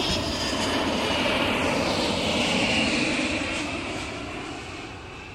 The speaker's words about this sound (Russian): Это звук двигателей взлетающего самолета.